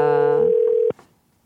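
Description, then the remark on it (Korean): A telephone ringback tone of an outgoing call to a listener on the radio show Jung Eun-ji's Gayo Gwangjang plays as one steady, loud electronic burst lasting nearly a second, then cuts off abruptly with a click, leaving near silence. No one speaks. “과연 오늘은, 오늘은 어떻게 될지 첫 번째 분께 전화 걸어 보겠습니다.”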